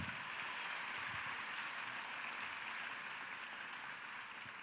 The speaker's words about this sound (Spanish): Dale un aplauso al Señor.